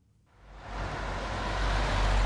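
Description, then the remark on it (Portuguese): Steady road traffic noise on the Estrada Nacional 118 swells in after a brief quiet start, a broad rumbling roar of passing cars, trucks and agricultural machinery that grows louder and stays dense, with no voices. “Pela Estrada Nacional 118 circulam diariamente milhares de carros, caminhões e alfaias agrícolas.”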